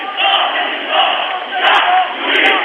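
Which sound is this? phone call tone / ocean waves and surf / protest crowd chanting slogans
protest crowd chanting slogans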